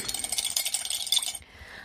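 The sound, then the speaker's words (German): A spoon stirs briskly in a small glass, mixing about eight drops of rennet with 30 millilitres of water, making rapid, light clinking and tinkling against the sides for over a second before stopping abruptly. Fairly quiet, with no voices. “So, das Ganze vermischen wir auch wieder.”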